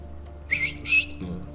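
Two short, breathy human whistles in quick succession, clear, made by a person whistling to call someone, over a quiet low background hum with no talking.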